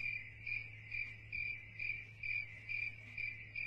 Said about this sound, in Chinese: 这只公蟋蟀再摩擦摩擦翅膀，这一次。它为母蟋蟀摩擦出了最最美妙的声音。